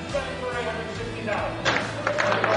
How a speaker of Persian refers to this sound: همه چیز تا اینجا عادی و معمولی پیش رفت تا اینکه مسئول برگزاری مراسم چکش را برای تایید فروش تابلو روی میز زد.